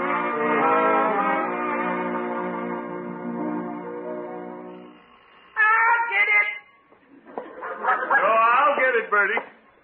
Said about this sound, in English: remembered to have that doorbell changed. I don't care for it.